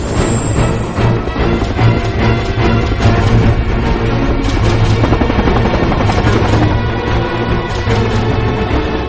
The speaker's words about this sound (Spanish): Damos la vuelta. El piloto vira el helicóptero y Cortés acelera.